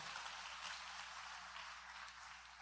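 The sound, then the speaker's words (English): A crowd gives God a big hand clap at a preacher's call during a sermon, a dense wash of many hands clapping at once, sustained and fairly even throughout without pause or spoken voices. “Give God a big hand clap because you believe that God is a great God of grace.”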